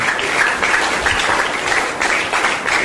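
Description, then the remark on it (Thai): A church audience in Seattle, USA, claps their hands in praise of God after a prayer ending in amen, a dense, sustained burst of applause, many hands at once, steady for a few seconds with no one speaking. “ในพระนามพระเยซู อาเมนอาเมนแล้วตบมือพระเจ้าดีไหมครับขอบคุณพระเจ้า”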